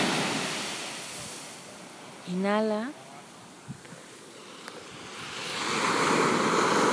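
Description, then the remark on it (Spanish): Broad, steady ocean surf washes onshore, swelling louder toward the end as a wave breaks; a single calm spoken word briefly rises over the rushing water. “Pero bueno, hoy no les pondré música para que puedan escuchar las olas.”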